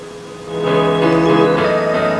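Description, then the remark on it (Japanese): Background music (BGM) with sustained, tonal harmonies, played during a TwitCasting broadcast, plays on its own with no talking, then its volume jumps up noticeably partway through and stays louder. “いやこれであの BGM をかけながら喋ってるんですけどこれがですね難しくて僕のあのイヤホンの方には返ってこないんですよ、そんなに。”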